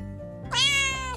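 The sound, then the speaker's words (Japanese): A single cat meow, drawn out and fairly loud, rising then gently falling in pitch with a bright harmonic tone, lasting under a second over a low background hum. “ここの公園をですね、ジョギングしてるとですね、かなりのね、確率でにゃんこさんたちに遭遇遇できてですね、結構あの皆さんね、人懐っこいにゃんこさんなのでね、仲良く遊ぶこともできるんですよね。”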